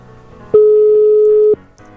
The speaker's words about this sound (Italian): faremo squillare il suo telefono, lui scapperà dalla biblioteca